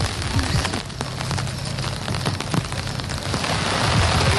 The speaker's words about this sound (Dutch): Nou, ehm, ik ben hier nu in de hoepeltent. Het zijn twee grote tenten, want ja, het regent nog steeds heel erg hard.